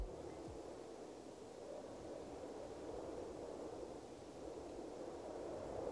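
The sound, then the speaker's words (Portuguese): Steady outdoor wind ambience in a park in the morning, a continuous low rushing and hissing that holds at an even level throughout, with no distinct events and no voices. “Então vou elencar e ir adicionando eles aqui: vento,”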